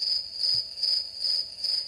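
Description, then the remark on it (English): Crickets chirp steadily in a high, shrill trill that pulses in regular swells roughly every half second, continuous, with no voices or other sounds. “Crickets.”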